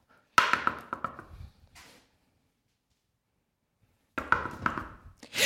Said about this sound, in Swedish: Knacka på.